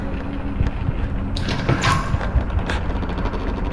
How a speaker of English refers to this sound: The door at the end of the hall is opening. A red mist is beginning to lick out of its open corners.